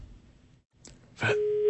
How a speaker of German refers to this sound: Die Busolis gehen nicht ans Telefon.